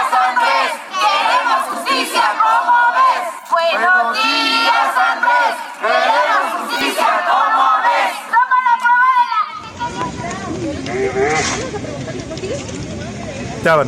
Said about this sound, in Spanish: así le gritaban las madres buscadoras al presidente.